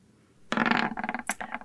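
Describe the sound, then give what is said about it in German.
Dice clatter and tumble across a hard surface for about a second, a fairly loud burst of rapid rattling clicks that slows into a few final bounces. “Ich würfel einfach mal.”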